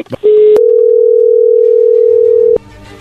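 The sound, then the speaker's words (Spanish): A steady, loud telephone tone holds at one pitch for about two seconds as a phone call is being dialed, then cuts off abruptly. Brief clicks come at the start and end, with faint background sound afterward. “vamos a llamarle en este momento. No haga ruido, por favor, ahí se está marcando.”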